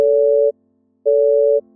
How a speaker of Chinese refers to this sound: 结果从电话那头传来的还是一阵忙音。